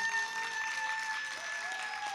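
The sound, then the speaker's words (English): A crowd claps steadily throughout, a dense and sustained wash of many hands applauding a group of kids, with a faint steady tone humming underneath. No one speaks over it. “One more time, let's give these kids a hand clap.”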